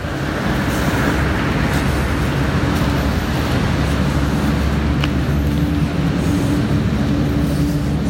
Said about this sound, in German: Das Laute, was ihr hört, sind übrigens diese Big Buses, Hop-on, Hop-off oh, von Rom.